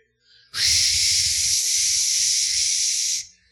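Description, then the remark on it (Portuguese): A voice imitates a rushing waterfall with one loud, steady "shhh" hiss lasting nearly three seconds, with a faint low rumble underneath before it cuts off. “A voz, como o som de muitas águas, ela silencia todas as outras vozes.”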